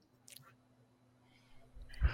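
Wet chewing and a bite into food: a faint smacky click early on, then a louder crunchy, squishy bite near the end, over a quiet low hum with no talking.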